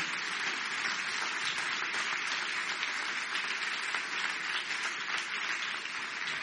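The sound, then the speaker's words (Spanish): An audience breaks into sustained applause for the Lord, a dense, steady wash of many hands clapping at even loudness for several seconds, with no voices standing out. “Que alguien diga un amén bien fuerte, le da un aplauso al Señor porque Él está aquí.”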